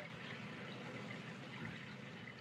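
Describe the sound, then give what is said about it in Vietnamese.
Gentle waves lapping in a steady, continuous watery wash, soft and fairly quiet, with no voices over it. “bây giờ các bạn nghe nhạc thiền một chút xíu đi lắng lòng xuống nghe nhạc thiền đi tiếng sóng vỗ”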